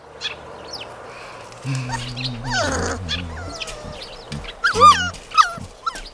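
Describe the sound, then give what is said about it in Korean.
A puppy, Merry-wol, gives high-pitched yips and whining barks on a country road, a drawn-out whimper early on, then a few sharp barks near the end over a faint outdoor background. “저, 저 강아지 귀엽, 귀엽다. 나 저 강아지랑 같이 놀래.”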